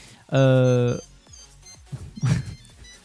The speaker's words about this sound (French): ah, j'entends, le, la petite mélodie. Voilà, donc c'est exactement la notification en fait sonore. Dès que vous retrouvez Wistiki, vous appuyez sur euh, en fait une pression tout simplement sur le Wistiki.